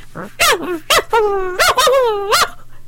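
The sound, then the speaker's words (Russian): An angry ginger puppy barks in shrill, high-pitched yaps: a handful of sharp yips mixed with longer whiny notes, loud, in a quick uneven burst with no one talking. “Щенок очень рассердился и залился визгливым лаем.”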